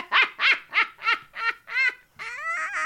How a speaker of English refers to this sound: Snorted. You just snorted.